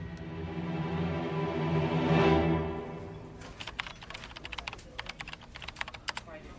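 A sustained, humming tonal drone swells and fades, then typing on a computer keyboard for a Google search follows: quick, irregular key clicks in bursts for the last few seconds.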